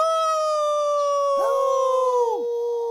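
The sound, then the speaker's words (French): Children imitate wolves: a child howls like a wolf in a long, steady, high-pitched tone; a second child's howling voice joins partway through, swelling and then dropping away at the end. “Aussi, lorsque le bûcheron surgit, les enfants n'ont aucun mal à les imiter. Aouh fait ….”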